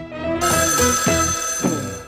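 A telephone rings loudly and steadily, its bright metallic bell tone repeating in quick bursts for about two seconds, with no voices present.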